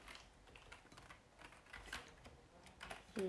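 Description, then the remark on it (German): Rapid, uneven keyboard typing, fairly quiet, with clustered clicks of keys continuing steadily for a few seconds and no voices, as someone writes the first chapter of a story. “Aber ich glaube, ich höre jetzt nicht auf. Ich schreibe noch weiter.”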